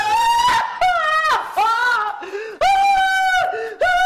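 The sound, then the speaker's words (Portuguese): A woman crying copiously, with loud wailing sobs that rise and bend in pitch. They come in several long bursts separated by brief catches of breath. “Leonor começara a chorar copiosamente.”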